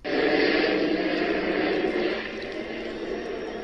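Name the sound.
helicopter flying overhead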